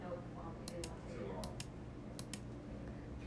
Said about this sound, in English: Do you hear the click of my mouse?